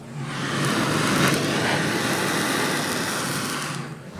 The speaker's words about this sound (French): C'est le bruit du chalumeau sur le macro. Incroyable.